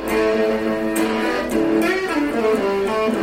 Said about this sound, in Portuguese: Ó, em vez da corneta, hoje eu trazendo um pequeno solo de guitarra que você está ouvindo aí de fundo.